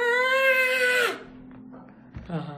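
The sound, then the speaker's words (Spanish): A single loud, sustained shout of about a second, held on one high pitch as a voice imitates the energetic cry people give while stomping hard in zapateado dance, followed by a quiet pause and another voice starting up. “Entonces se oye en toda la universidad a ah", todo el mundo gritando porque es de energía a la hora de zapatear y de, zapatear duro, estás botando toda la energía que sacas de la calle.”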